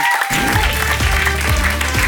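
Audience applause, a steady dense patter of many hands clapping at a loud, even level, with a faint hum of crowd noise underneath and no talking.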